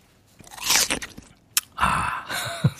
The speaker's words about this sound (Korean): 사과 깨물어 먹는 소리예요. 일부에 나옵니다.